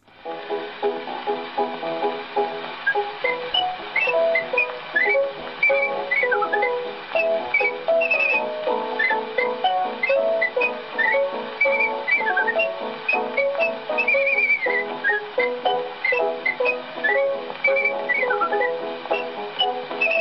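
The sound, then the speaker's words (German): A lively, ornate whistled melody, the piece La Gran Via, by a Viennese artistic whistler, with quick trills and runs over steady instrumental accompaniment, heard through the thin, muffled sound of a 1902 recording. “Jetzt hören wir hinein in eine der ersten Aufnahmen eines Kunstpfeifers, 1902 von dem Wiener ….”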